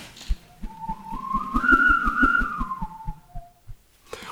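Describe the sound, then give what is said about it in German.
A long thin connecting hose from a foot pump to an air mattress, no thicker than a little finger, whirled through the air gives off an airy, wavering whistle that rises to a higher overtone and falls back, over a steady rhythmic thumping pulse, moderately loud. “Was ihr eben gehört habt, war nichts weiter als ein Verbindungsschlauch von der Tretpumpe zur Luftmatratze.”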